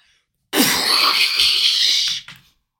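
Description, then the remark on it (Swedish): A person mimics a volcanic eruption with a sudden, loud, breathy roar from the mouth that holds for over a second, then trails off with a short final puff of air. “ni vänder er om, kollar åt hållet där det exploderar, antar jag.”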